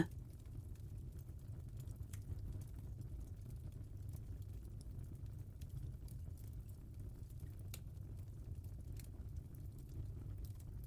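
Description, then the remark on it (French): A fireplace fire crackles steadily, with irregular sharp pops and snaps over a soft, continuous low roar. It is fairly quiet and even throughout, with no voices. “Je vous propose une nouvelle séance avec bruitages cette semaine.”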